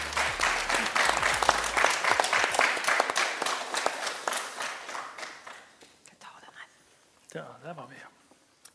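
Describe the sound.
An audience claps and applauds steadily for about six seconds as a guest walks over, a dense patter of many hands that fades out, followed by a brief bit of talking.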